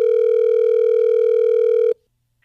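A phone line rings once as a call is placed live on the Miguel Show on the radio station Hot 1015: a steady, loud electronic tone lasting about two seconds before cutting off abruptly into silence, with no voices.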